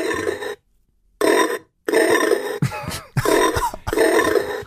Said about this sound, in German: Es gibt Diätschweine, die man mhm. sich in den Kühlschrank setzt.